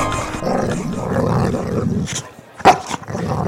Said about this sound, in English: Basil the Boxer. He would growl and he had sharp teeth.